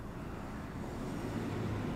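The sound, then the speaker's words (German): A steady, low rumble of a car on a street, with constant engine and road noise holding at an even, moderate level throughout and no voices. “Sie ist direkt in den Wagen hineingelaufen.”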